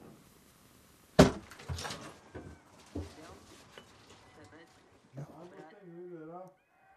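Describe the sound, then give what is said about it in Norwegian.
A door bangs shut with a sharp, loud knock early on. Indoor clatter and voices follow, ending with a higher, wavering vocal sound. “Ja, steng døra.”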